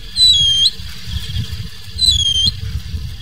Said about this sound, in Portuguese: já deve ter ouvido esse som super misterioso aí do Bacurau da Telha. O Bacurau da Telha é uma espécie de Bacurau típica do topo das montanhas do Brasil